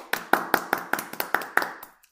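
Applause: about eight sharp, evenly spaced claps in a steady rhythm, crisp and moderately loud, fading out after two seconds with no voices.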